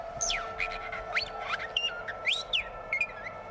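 A parrot imitates robot-like electronic sounds, a rapid series of sharp sweeping beeps and chirpy whistles rising and falling in pitch over a steady background hum.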